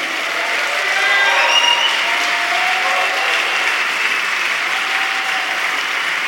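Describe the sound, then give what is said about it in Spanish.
A church audience, led by the men, applauds the Lord steadily: a dense, sustained wash of many hands clapping at an even loudness for several seconds, with a few faint voices and cheers mixed into the noise. “Pero ya levántate, hombre, dale un aplauso al Señor, los hombres.”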